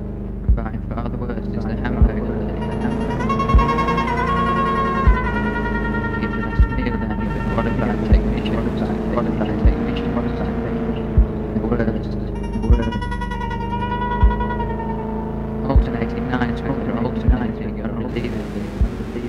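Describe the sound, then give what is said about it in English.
Harsh, droning experimental music from a 1980 track, with grinding low tones, shrill sustained pitches and a steady thudding beat pulsing about every one and a half seconds, loud and abrasive throughout with no voices. “The music was confrontational and often deliberately unpleasant.”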